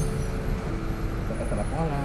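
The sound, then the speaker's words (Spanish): Inside the moving Infonavit number 2 city bus heading toward Ciudad Valles, San Luis Potosí, on 5 November 2020: a steady, loud low rumble of engine and road noise fills the space, with indistinct voices murmuring faintly beneath it. “desde el, desde el autobús de, del infonavit número 2. Yendo hacia la casa de Ciudad Valle San Luis Potosí.”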